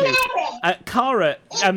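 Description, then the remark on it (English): High-pitched children's voices chatter, overlapping with an adult speaking in brief, hesitant bursts. “And uh, uh, I do apologise about the kids.”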